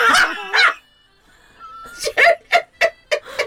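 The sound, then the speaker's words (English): An unfamiliar mobile phone ringtone made of barking dog sounds: a pair of yappy barks, a brief pause, then a rapid, evenly spaced run of five sharp loud barks. “I've just had an unexpected ringtone that I've never heard before coming out of my phone.”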